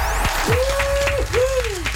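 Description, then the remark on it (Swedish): A steady, dense burst of morning applause welcoming politician Gustav Fridolin, many hands clapping at once for about two seconds, with a smooth sliding tone that rises and falls through the middle. “En applåd på morgonen.”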